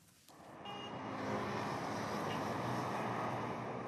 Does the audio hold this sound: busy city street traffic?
yes